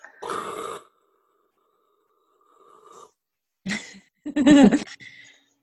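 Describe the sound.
A voice imitates the arcane equivalent of white noise with a breathy, rasping hiss, then a faint wavering hum, followed by a couple of short voiced bursts like a snort or a laugh.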